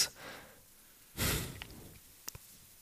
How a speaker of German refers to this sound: Dabei ist es aber einfach nur ein akustisches Zeichen, wo zum Beispiel ein stärkeres Ausschnaufen ist als normal. Durch die Nase.